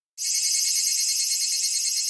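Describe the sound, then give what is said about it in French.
Japanese cicadas singing in a loud, steady, high-pitched buzz that starts abruptly and holds without a break, sounding almost electronic, with no voices present. “Celles-là, elles viennent du Japon, eh oui, vous entendez, c'est décidément très différent de chez nous. On dirait des sons électroniques.”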